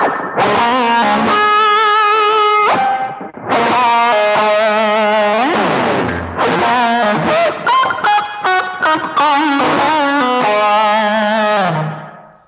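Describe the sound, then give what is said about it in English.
A harsh, buzzy fuzz guitar lead, with the amp and cab turned off and the fuzz pedal going straight to front of house, played loud and dry with thick sustained chords, gliding bends and choppy stabs over about twelve seconds, plus a couple of brief laughs. “It turns off the amp and cab, and it's just a fuzz pedal going straight to front of house.”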